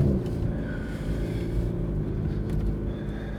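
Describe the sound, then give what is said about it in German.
Steady low engine rumble from inside a moving car, a dense droning hum with road noise filling the cabin at a constant, fairly loud level, no voices. “Äh, ich glaube, ich muss weiterfahren.”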